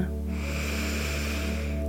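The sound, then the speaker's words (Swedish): One long, deep inhalation filling the lungs, drawn in steadily during a breathing exercise, an airy rush of breath lasting a couple of seconds over a faint low hum, with no talking. “Och så stannar du till och tar ett sånt där riktigt, riktigt djupt andetag igen. Andas in, fyll upp lungorna.”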